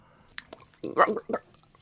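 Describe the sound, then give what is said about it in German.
Wet gurgling of water held in a mouth to imitate blood in the throat: a few faint lip clicks, then a short bubbly, squishy burst of liquid sloshing, with no talking. “Wenn du Mund, Wasser in den Mund nimmst und noch ein bisschen dazu gurgelst, dann hast du noch Blut da hinten drin.”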